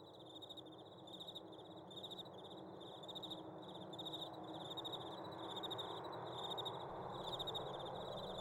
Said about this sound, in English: the only sounds to be heard in the wastes this late was the slow chirp of the crickles, the dusty cough of a wind as it worked its way over the barren landscape, and the jingling of pans